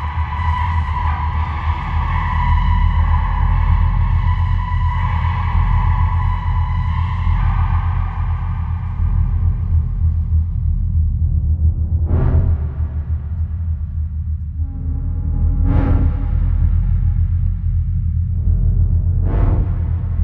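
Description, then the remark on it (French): A song plays during a musical break in the show Chaos sur le Ring Théâtre, steadily over a deep, constant low rumble: sustained harmonic tones hold for several seconds, then fade into sparser passages punctuated by three bright, sharp accents. “On fait de nouveau une petite pause musicale”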